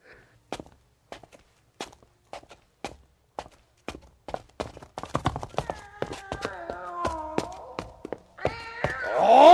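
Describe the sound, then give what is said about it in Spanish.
A cat meows repeatedly as it follows a person down the stairs to the cellar of an old house, over steady footsteps going down the stairs. The meows build into a loud, drawn-out yowl at the end. “El gato me siguió mientras bajaba la escalera.”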